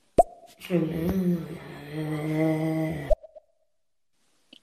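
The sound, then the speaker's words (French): A voice imitates a Formula 1 car: a sharp pop, then a buzzing, engine-like drone that rises in pitch and holds for a couple of seconds before cutting off, followed by faint clicks. “il a imité un bruit de, de, de Formule 1.”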